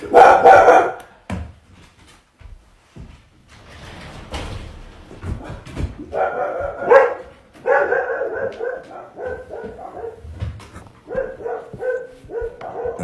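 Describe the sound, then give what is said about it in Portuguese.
A dog barks in a loud opening burst, then after a lull lets out a rapid run of shorter barks and yips that continue to the end, with no talking. “E, enfim, nós temos aqui um pequeno latido.”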